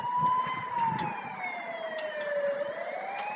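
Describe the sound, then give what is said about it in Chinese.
A police car siren wails in one long, slow sweep, gliding down in pitch and then climbing back up, steady and loud over a low rumble of traffic. “啊，那边来了一辆警车。”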